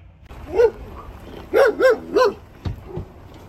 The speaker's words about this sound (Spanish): hay unos perros que le ladran a todo el mundo y me ladran cada vez que llego